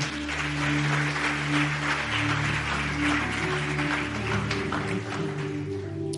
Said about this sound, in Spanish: Y le damos un aplauso bien fuerte al Señor.